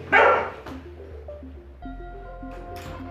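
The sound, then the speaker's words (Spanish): A small female dog outside gives one sharp, loud bark, followed by quieter yips and whimpery sounds while a soft tonal hum runs underneath. “no fui yo, ¿eh? Fue la perrita que me andaba acompañando allá afuera.”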